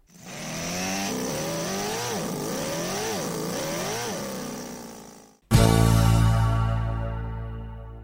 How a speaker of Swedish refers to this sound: ett för varje cylinder och en testbänk är redan klar för provkörning. Kylarna kommer ifrån en Volkswagen och bränslepumpen från en Peugeot och det passar bra för den här lilla V8 på 100 kubik. Vi tar och lyssnar, det är bra klös igen.